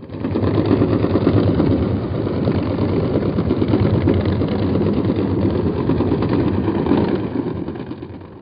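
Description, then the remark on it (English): A large ship passing a hydrophone array, its engine heard underwater as a loud, steady low-frequency rumble and throbbing drone that fills the whole stretch without pause, swelling slightly near the end, with no voices. “That was the sound of a large ship passing by a hydrophone array.”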